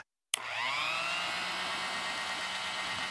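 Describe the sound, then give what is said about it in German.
An electric hand mixer for whipping cream switches on after a brief silence and whirs steadily at high speed, a continuous buzzing drone with a slight rising pitch as it spins up, fairly loud. “Aber gut, jetzt habe ich ja das richtige Gerät, nämlich das hier.”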